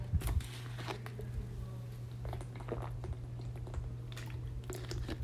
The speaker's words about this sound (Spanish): Me pasó, tengo la garganta seca, ya va. Voy a tomar agua.